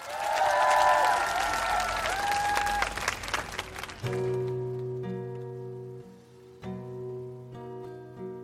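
A busking audience claps steadily and loudly for about four seconds, a dense patter with a few whoops on top, then it gives way abruptly to sustained musical chords of an acoustic song.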